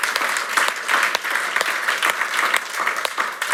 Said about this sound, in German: Und mit Theo und Arlene mal einen dicken, fetten Applaus geben, die hier dranbleiben für ihr Alles geben, für ihre Leidenschaft.